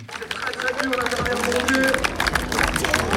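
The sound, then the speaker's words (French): Spectators applaud at the finish line of the Mora Fribourg running race as the first runners arrive, a dense, steady patter of many hands clapping, with crowd voices and shouts mixed in throughout, holding loud for the whole stretch. “Ces applaudissements, ce sont ceux des spectateurs à l'arrivée des premiers coureurs du Mora Fribourg.”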